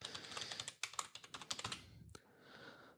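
Rapid, clicky keystrokes on a computer keyboard, in an irregular burst of typing that trails off into a soft hiss after about two seconds.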